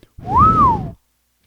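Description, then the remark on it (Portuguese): A single clear whistled note rises and then falls in pitch, lasting under a second, fairly loud, with a faint breathy hiss underneath and no talking. “Eu ia falar que o assobio nunca foi um método de comunicação, porém, existe uma tribo aqui no, no Brasil mesmo, se eu não me engano, uma tribo indígena que se comunica com assobios.”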